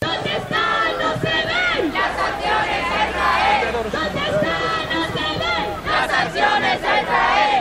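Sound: protest crowd chanting slogans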